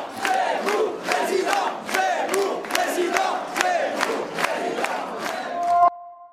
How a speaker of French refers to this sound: Et il termine avec une salle qui crie encore une fois Zemmour euh, président ou Zemmour second tour.